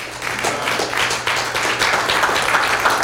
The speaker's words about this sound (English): Amen. You believe that, give the Lord a hand clap.